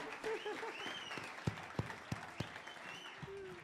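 Audience applause: a dense, steady patter of many hands clapping for a few seconds, with a few sharper claps standing out and faint voices mixed in underneath.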